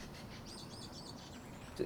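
Faint birdsong, a short run of repeated high chirps over a low background hum, with a brief louder rustle right at the end.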